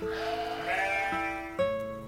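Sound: sheep bleating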